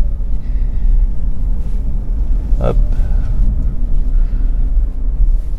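Steady low rumble of an electric car pulling away from a roundabout in town after only braking, with no gear change, road noise holding even throughout and a brief sharp click near the middle.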